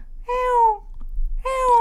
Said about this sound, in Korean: 소리가 들리는 겁니다. 네. 그냥 지나갈 수가 없었던 이유. 정말 아기 고양이 소리였거든요. 음. 음. 소리가 나는 곳으로 가보니 어미는 어디로 간 건지 아기 고양이 혼자 눈도 다쳐서 울고 있었어요.